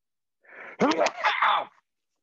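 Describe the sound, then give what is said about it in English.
A single loud sneeze: a short breathy intake, then an explosive burst that trails off in a voiced, drawn-out finish, with silence on either side. “I'm doing a sneeze.”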